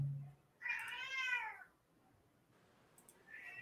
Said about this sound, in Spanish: Escuché un gato.